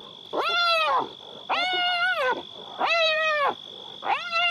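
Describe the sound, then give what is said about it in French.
Young spotted hyenas at their den give four loud, drawn-out squealing submissive cries, each under a second and evenly spaced with short pauses, over a thin steady high whine, as they dance around an adult male arriving with a zebra leg. No one speaks. “Ils poussent des cris de soumission tout en commençant une danse autour de l'adulte.”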